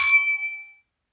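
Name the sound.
glasses clinking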